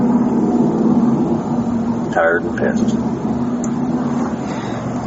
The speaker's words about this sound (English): I think his sister is coming to pick him up, which is the car that rolled up. I think so, because she was here earlier, took his brother, and then now I guess is taking him.